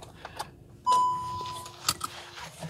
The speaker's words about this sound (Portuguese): Deixem-me só estacionar o carro, não me quero distrair. Ok.